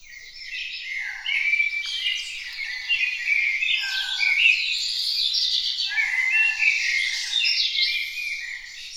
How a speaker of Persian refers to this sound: سعید کوچولو همینطور خوشحال و خندون مشغول قدم زدن بود که ناگهان از دور متوجه صدای ازدهام پرنده ها میشه.